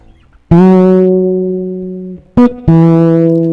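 An instrument plays a few loud, sustained notes with a reverb effect: one long held tone, a brief stab, then another held note, with no talking.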